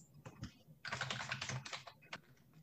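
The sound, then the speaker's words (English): Rapid, clattering keystrokes on a computer keyboard, banged hard in a dense flurry rather than real typing, with a few scattered taps before and after, fairly loud. “He's banging away on the keyboard.”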